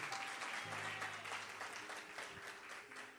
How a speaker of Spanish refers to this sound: Alguien dice, alguien da un aplauso. si lo entendió, denle un aplauso al Señor.